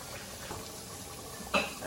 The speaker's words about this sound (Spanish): ya vi para qué es el agua. Hirvieron agua y le van a poner más agua.